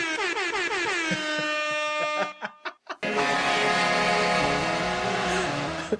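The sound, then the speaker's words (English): A loud, blaring air horn sound effect fires off in rapid repeated bursts, stutters briefly, then blasts again in a long sustained honk, with no talking underneath. “was the rap air horn on purpose or was that a, a that was on purpose?”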